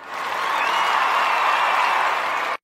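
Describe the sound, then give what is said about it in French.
A crowd applause sound emoji (Soundmoji) from Facebook Messenger: a crowd applauds steadily, a dense wash of many hands clapping at an even loudness for a couple of seconds before cutting off abruptly. No one speaks. “Parmi ces 27 émojis sonores, on retrouve des applaudissements de foule”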